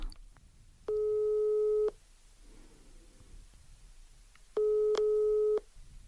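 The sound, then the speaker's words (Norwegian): Two long, steady ringback tones from an outgoing phone call on speakerphone, each lasting about a second with a pause between, sounding slightly thin over quiet room noise. “da skal jeg bare slå på tråden, jeg.”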